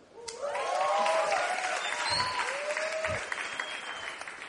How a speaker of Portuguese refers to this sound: Aplaude aí de novo, gente.